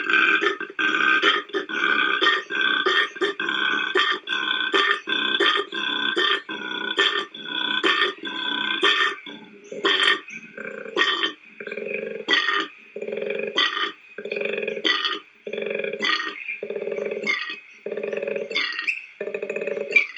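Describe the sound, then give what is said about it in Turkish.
An adult male koala bellows with a deep, rasping snore-like call, repeated in a steady rhythm of pulsing inhales and grunting exhales, loud with no talking. “Yetişkin erkek bireyler çiftleşmek ya da rakiplerinin gözünü korkutmak amacıyla horultuya benzer sesler çıkarıyorlar.”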